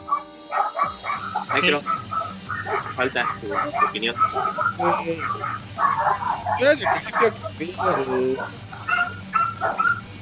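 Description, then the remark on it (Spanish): Small dogs bark and yip in repeated bursts, with occasional whimpers, while people talk over them throughout. “hay perritos, hay perritos, no se oye.”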